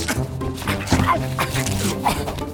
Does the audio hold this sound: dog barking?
yes